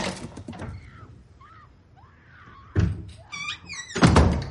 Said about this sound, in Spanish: Dentro, Brandy corre hasta una puerta. Francesca le abre.